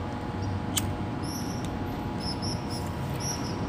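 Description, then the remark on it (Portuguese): A cigarette being lit: one sharp lighter click followed by a faint second tick, over a low steady hiss with a few thin, high squeaky chirps. Nobody speaks. “Deixa eu, deixa eu acender meu cigarrinho aqui, peraí.”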